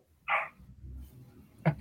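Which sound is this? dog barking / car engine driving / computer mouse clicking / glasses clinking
dog barking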